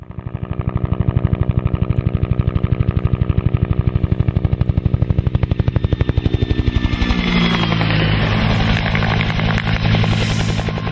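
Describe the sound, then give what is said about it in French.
A Bell UH-1B Huey helicopter's loud, rhythmic rotor blade slap thumps steadily, then the engine whine and chopping shift as it seems to pass or change pitch, with no voices. “Les euh, grands amateurs d'aviation et d'hélicoptères auront peut-être même reconnu le son unique de cet appareil mythique servant, euh, entre autres pendant la guerre du Vietnam, le fameux euh, euh un appareil donc Bell UH-1-1B Huey”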